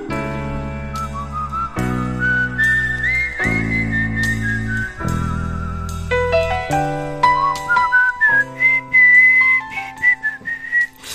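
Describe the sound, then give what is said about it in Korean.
Someone whistles a flowing melody over a backing of sustained chords and bass, the bright wavering tune gliding between notes, loud throughout, with no talking. “휘파람 소리 듣기 좋잖아요.”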